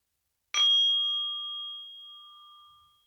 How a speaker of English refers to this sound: And I will ring the bell to start the practice, inviting you to concentrate on yourself and also your breathing in and out.